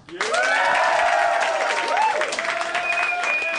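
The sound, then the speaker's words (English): An audience bursts into loud, sustained applause that starts abruptly, dense clapping mixed with scattered whoops and cheering voices rising and falling over it. “Uh, uh, applause on three. One, two, three, mm. applause.”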